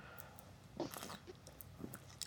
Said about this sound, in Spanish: Perdón, le estaba dando un trago.